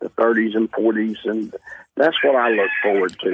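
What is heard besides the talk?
rooster crowing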